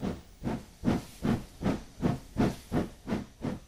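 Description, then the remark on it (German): A huge steam locomotive at a railway station chuffs in a steady rhythm, about nine or ten evenly spaced exhaust blasts wrapped in continuous hissing steam, moderately loud with no voices. “Wenn ich heute an meine Großmutter denke, höre ich das Schnaufen dieser riesigen Dampflokomotive.”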